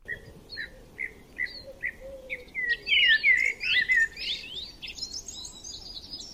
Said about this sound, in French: Le tout au son des oiseaux.